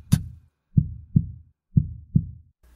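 A pounding heartbeat sound effect: a sharp opening thump followed by two heavy lub-dub pairs, deep, booming and loud, with no voices over it.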